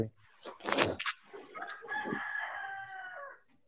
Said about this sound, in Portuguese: Olha o galo.